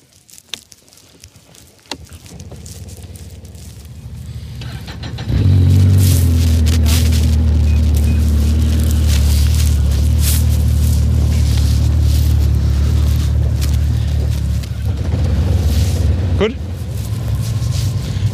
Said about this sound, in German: ja, ihr könnt die Motoren anmachen und ein bisschen warm laufen lassen.